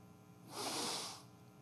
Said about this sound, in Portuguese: Dando aquela respirada.